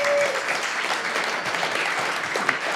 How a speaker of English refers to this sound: would you please stand up and can we just give you a round of applause?